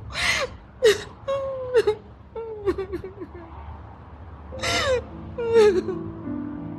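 A woman cries and whimpers up close, sharp breathy gasps alternating with wavering, high-pitched moans in an uneven sobbing rhythm, with no words spoken.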